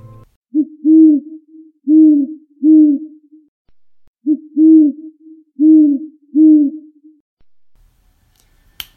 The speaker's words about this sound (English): The answer to this animal was the great horned owl. Yep, it's a great horned owl. And if you guys guessed owl, that's basically correct. All owls sound pretty similar.